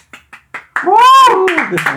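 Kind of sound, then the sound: human body sound, hand clapping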